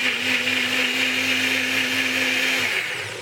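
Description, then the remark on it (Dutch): A loud blender, blending a drink made with warm almond milk, whirs steadily for about three seconds, its motor humming with a constant pitch before winding down slightly at the end. No one speaks. “Dus al het goede spul zit nu in de blender.”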